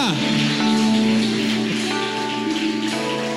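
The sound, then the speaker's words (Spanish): An audience applauds with dense, steady clapping that fills the whole stretch at a loud, even level, while sustained musical chords and raised voices carry on underneath. “Vamos, alguien tiene que dar un aplauso y decir amén.”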